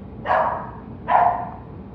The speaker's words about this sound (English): If you can hear that, we're sorry. It's the dogs.